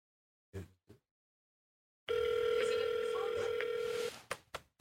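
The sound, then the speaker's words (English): A phone call to a random person from Springfield: a steady, mid-pitched electronic hum holds for about two seconds, with a couple of brief sounds before it and short clicks right after it cuts off. “Okay, we are calling a random person from Springfield.”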